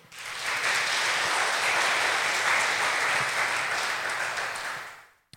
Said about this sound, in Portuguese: E eu quero um aplauso ao Senhor.